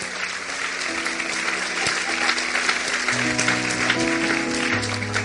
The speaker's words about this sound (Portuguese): Aplauda ele, porque ele é bom.